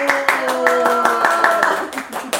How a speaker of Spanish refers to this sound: Quiero pedirles un fuerte aplauso para Denise Salazar. Un aplauso.